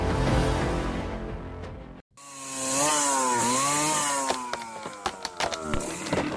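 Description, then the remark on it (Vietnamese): A chainsaw roars as it fells trees in a forest, its engine whine rising and dipping as it bites into wood, cutting out briefly before revving again, with sharp cracking and clattering near the end. “Những cánh rừng bị bốn hạ”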